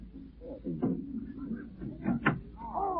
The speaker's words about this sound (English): What's that? Sounds like someone rapping on the French door. There is someone standing outside them. It's a girl.